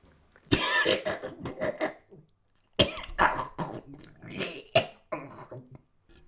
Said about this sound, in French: Ses joues se gonflèrent, accompagnées d'un son guttural et peu mélodieux. Il se plia en deux, sa seconde main posée sur le ventre, et, libérant sa bouche, en laissa sortir tout ce que son estomac pouvait encore contenir